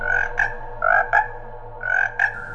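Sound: toad croaking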